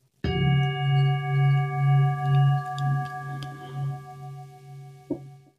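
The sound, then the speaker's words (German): A singing bowl is struck once and rings out with a bright, sustained metallic tone that wavers in slow pulses as it gradually fades, with a faint tap near the end. “Ja, und dann ähm, würde ich einfach mal beginnen und die Klangschale läuten.”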